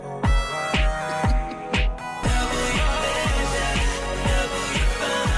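An upbeat R&B pop song plays with a steady, punchy kick-drum beat, layered synths and bright sustained tones, loud and close with no talking over it.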